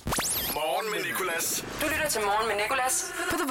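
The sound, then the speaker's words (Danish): A short, loud sweeper jingle for the radio station The Voice: a rising whoosh effect opens into a heavily processed voice with musical, effect-laden tones, packed densely into a few seconds of produced audio. “De hedder sweepers, de her lyde her.”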